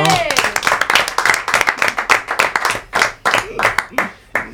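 An audience bursts into applause, a dense crackle of many hands clapping steadily and loudly for several seconds, with a brief whoop or cheer rising at the start.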